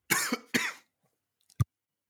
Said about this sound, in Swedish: blev så nervös så han började hosta här nu.